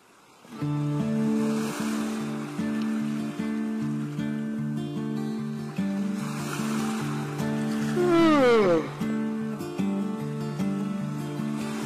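Ocean waves wash in and recede in slow swells, mixed under a steady melodic music track that stays prominent throughout; no voices are heard.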